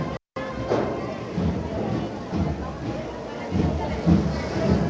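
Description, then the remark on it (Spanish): Muffled drums of the Banda del Carmen de Almería marching band playing a pasacalles, heard through a door, a dull, steady rolling beat with low thuds, mixed with a murmur of crowd noise throughout. “Bueno, pues ya lo que escuchamos son los tambores muy eh, buen sabor de boca el que dejó la banda del Carmen de Almería”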